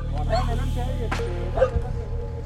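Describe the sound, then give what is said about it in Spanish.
Trained search dogs bark in a few short, sharp bursts while searching for a person trapped under metres of earth after a landslide in a ravine, over a steady low rumble of background noise. “Para ubicarlo, entre los metros de tierra se utilizaron perros entrenados para la búsqueda.”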